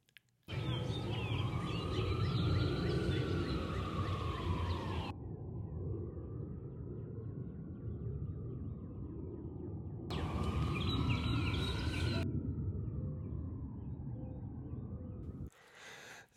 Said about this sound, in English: And this is how it sounds when I'm walking my dog through the neighborhood.